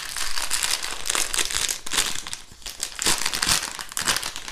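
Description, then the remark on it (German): Steady crinkling of a plastic bag of ground flaxseed as 50 grams are added, with bursts of sharp rustles and crackles continuing for several seconds, no voices. “Und als nächstes noch 50 Gramm geschrotete Leinsamen.”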